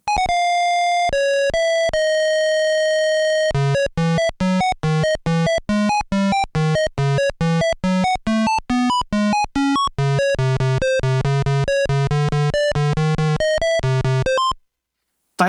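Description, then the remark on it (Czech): The intro theme of the second Life and Dead hospital video game: a synthesized electronic melody opens with a few long sustained tones, then moves into quick, evenly pulsing notes over a bass line before cutting off abruptly, like a retro video game intro theme. “O dva roky později se Life and Dead dočkala druhého dílu, kde slyšíme následující úvodní melodii.”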